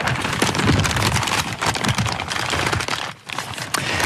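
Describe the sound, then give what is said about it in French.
Paper being crumpled: a dense, continuous crackling and rustling that stays fairly loud for about four seconds, briefly easing for a moment near the end, with no voices. “je pense que c'est du papier, simplement du papier qu'on froisse tout simplement”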